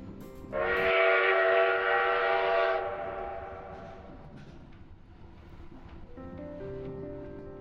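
A train whistle blows one long, loud, steady harmonic blast for about two seconds, then fades into the rumble of a running train, with a fainter horn-like tone returning near the end.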